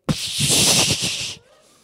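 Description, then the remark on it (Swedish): A voice makes a loud, sustained hissing "pshhh" imitating a garden hose with a high-pressure nozzle spraying water at a cat on a patio, lasting just over a second before cutting off abruptly. “Så får jag tag på vattenslangen och jag har högtrycksmunstycket på.”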